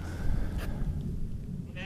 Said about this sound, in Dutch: Dat zijn er 200 of zo. Die schapen. Dat zijn er wel veel, hè?